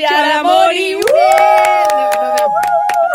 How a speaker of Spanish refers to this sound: Bueno, ahora sí, démosle la bienvenida a nuestra invitada. Sí, vamos a hacer aplauso casero.